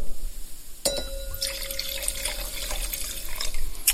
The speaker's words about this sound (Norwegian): Jeg har da eh, gått til eh, Bodenheimer eh, Silverberg, altså en enkel vinmark. Skal høre at jeg heller oppi glasset også.